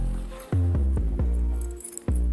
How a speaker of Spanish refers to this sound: Y las llaves de la casa.